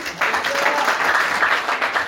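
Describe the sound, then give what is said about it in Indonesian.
A crowd applauds in thanks to Jesus, steady dense overlapping claps at a fairly loud level, with a faint voice or two murmuring underneath. “Yang bersyukur kita berikan tepuk tangan buat Tuhan Yesus.”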